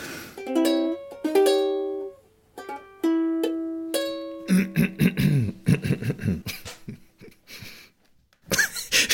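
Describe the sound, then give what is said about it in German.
An old toy party horn (Tröte), found in an old carnival costume and still working, is blown in a few loud, buzzy blasts, each a steady reedy tone lasting a second or so, followed by laughter and breathy sounds. “Normalerweise gehen die ja sofort kaputt, diese Tröten.”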